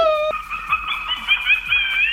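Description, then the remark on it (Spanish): A Halloween-themed doorbell ringtone developed by doorbell makers for Halloween: a short bright electronic tone, then a long, wavering, howl-like cry sliding around in pitch, loud and steady, with no talking. “pues ahora que viene Halloween, las compañías que hacen los timbres han desarrollado tonos para los timbres con motivo de Halloween.”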